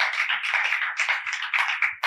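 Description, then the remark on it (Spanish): An audience breaks into applause to welcome two guests, a dense, steady wash of many hands clapping at once, loud and sustained with no voices over it. “Bienvenidos a las dos y gracias por acompañarnos, que vienen de lejos, así que también se merece un aplaudimiento, un aplauso.”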